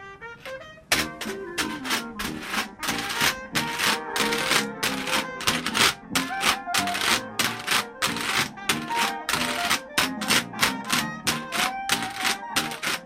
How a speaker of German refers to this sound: Er lässt die CD laufen und spielt ganz versunken dazu auf seinem Wäschbrett. Dixieland-Musik liebt er über alles.